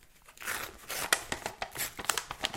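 The paper sleeve is torn away from an empty yogurt cup for waste sorting, in a series of short, crisp rips and crinkles, fairly quiet, with no voices.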